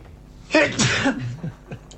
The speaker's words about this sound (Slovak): Idem si kýchnuť. Na zdravie.